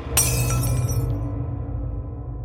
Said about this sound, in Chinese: 门外的保镖听见了玻璃砸碎的声音。